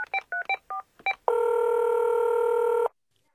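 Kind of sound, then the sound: signal or alarm, telephone number being dialed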